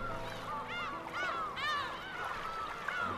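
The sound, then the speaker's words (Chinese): A flock of seagulls calling over and over, their loud, harsh cries overlapping in rising-and-falling squawks that fill the whole moment without any talking. “海豚们和海鸥们谈笑着，一起逗弄着海龟。”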